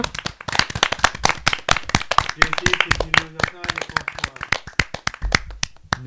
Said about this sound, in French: On peut quand même l'applaudir. Merci.